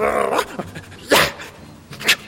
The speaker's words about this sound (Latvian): nekavējoties atrēja un nošķaudījās.